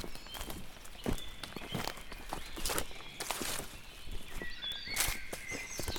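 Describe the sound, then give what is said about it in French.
Steady footsteps of people hiking squelch along a muddy forest trail at a walking pace, with faint birdsong and a quiet outdoor ambience in the background. “Bon, ça fait une heure qu'on marche. J'ai les pieds trempés de la boue plein mon pantalon, j'en ai ras le cul.”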